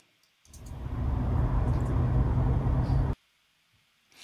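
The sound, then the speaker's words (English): Loud, rumbling roar from a video of a car crash, in which a Tesla flies about 10 feet into the air and crashes into parked cars, lasting about three seconds before cutting off abruptly into near silence, with no one talking. “Dude, the car literally flies it's taller than people.”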